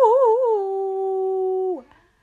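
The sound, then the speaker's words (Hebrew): A single loud voice imitates Tarzan's jungle yell: a warbling, yodel-like start settling into a long held note for over a second, then cut off with a quick downward slide. “כל בוקר הוא היה קם, מלטף את הנמר שהיה חבר שלו, מתחבק עם דוב, ועושה קריאות כמו אאו,”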